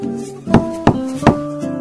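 Three sharp knocks on a door, the second following quickly after the first and the third after a slightly longer pause, over a steady, sustained musical tone.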